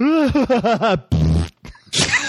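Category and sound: vocal imitation, voice imitating a fart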